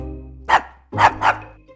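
A dog, Luna, barks three times in quick succession, one sharp bark followed by a pause and then two closer-spaced barks, loud with a low hum underneath.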